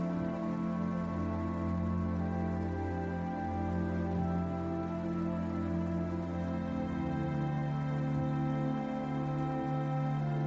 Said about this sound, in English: Let the sound of the waterfall guide you into a state of deep relaxation and positivity. As you stand by the waterfall, allow its energy to infuse you with positivity.